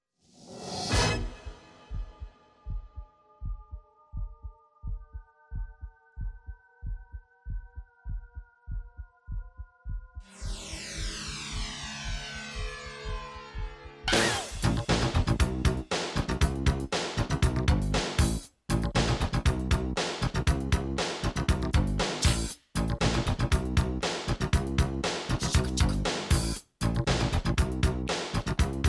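A pop song starts with a steady heartbeat-like thump under sustained synth tones, then a rising swell, and bursts into a loud, driving full-band groove with a punchy beat.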